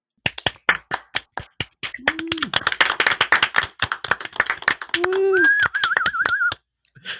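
Audience applause: many hands clapping in a dense, uneven patter, joined midway by rising whistles, including a warbling one, before the clapping thins out and stops.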